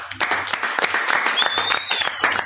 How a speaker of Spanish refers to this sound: Muy bien, chicos, un aplauso para ustedes, por favor.